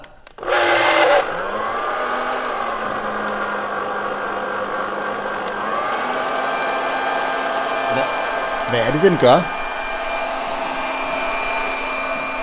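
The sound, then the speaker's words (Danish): A hot-air coffee roaster, like an oversized hairdryer, blowing hot air on 80 grams of green coffee beans, starts with a sharp burst, then settles into a steady, loud whirring blow with a rising motor hum, while a person briefly asks a question over it. “Det er varmeluft, så den blæser sådan, sådan bare øh, varm luft op på bønderne.”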